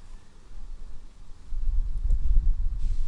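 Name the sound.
wind blowing into microphone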